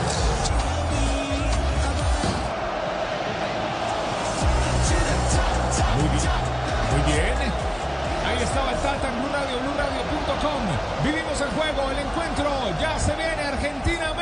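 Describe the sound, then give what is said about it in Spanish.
A dense, continuous roar of a stadium crowd of about 80,000 people at the largest stadium of the World Cup, many voices shouting, chanting and singing together at a steady high level as people jump, with scattered sharp thuds and bursts rising out of the din. “Muy bien, la gente que grita, la gente que salta, la gente que canta. El estadio es una locura, ¿eh?”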